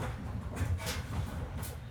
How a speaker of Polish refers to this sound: Oj, czy ktoś tam odpala kosiarkę?